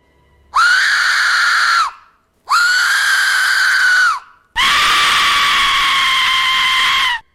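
Three loud, piercing shrieks from an Aztec death whistle, the first two about a second and a half each and the last longer and harsher, sounding like a human scream, alone with no talking.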